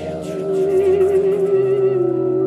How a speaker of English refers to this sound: The track ends with some eerie sounding, echoing music with a repeated whispered voice intoning,